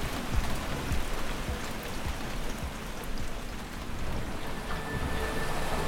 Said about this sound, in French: La pluie tombe à verse.